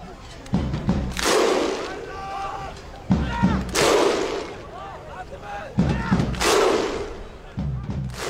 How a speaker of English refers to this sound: The thunder clap? Oh yeah, the Viking clap.